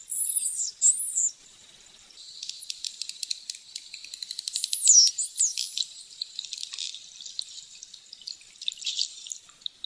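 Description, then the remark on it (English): Bottlenose dolphin signature whistles recorded in the Bahamas by Wild Quest: high, swooping tonal calls rising and falling in pitch, interspersed with rapid trains of sharp clicks, with no talking. “These bottlenose dolphins were recorded in the Bahamas by Wild Quest.”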